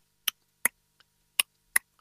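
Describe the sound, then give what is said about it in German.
A voice mimics the ticking clock of a car from about 1984 with crisp mouth clicks: four sharp ticks in a steady tick-tock rhythm, with fainter, softer clicks in between and no talking. “Dann tickt die Uhr und das ist richtig gut zum Meditieren, zum ja.”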